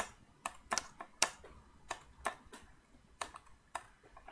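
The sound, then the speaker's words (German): Computer keyboard typing as a man types a reply to a message: sharp, clicky keystrokes tapped in an uneven rhythm with short pauses, about a dozen presses, no voices. “meine Tastatur funktioniert nicht, weil das Dongle da hinten ist.”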